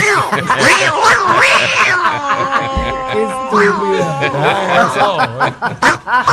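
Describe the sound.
A person imitates a cat, letting out several drawn-out, wavering meows and yowls, fairly loud, ending in choppy bursts that sound like laughter.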